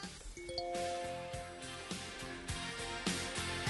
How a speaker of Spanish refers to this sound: Ese es el sonido de los contactos con nuestro WhatsApp